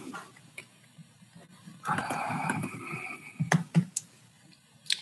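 Sharp clicks of a computer mouse or keys picked up by a call participant's microphone, a few scattered taps amid quiet, with a short burst of shuffling handling noise midway and no talking.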